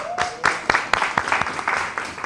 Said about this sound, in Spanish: ¡Viva Cristina! Un aplauso para Cristina, venga. Muy bien.